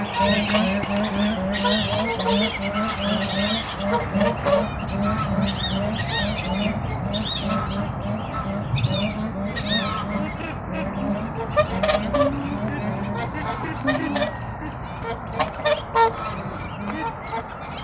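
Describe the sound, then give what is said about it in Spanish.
A flock of whooper swans calls continuously, overlapping bugling honks rising and falling in a steady, busy chorus at moderate loudness, with no pauses and many birds sounding at once. “Escuchamos para finalizar, entre otros, a los cisnes cantores.”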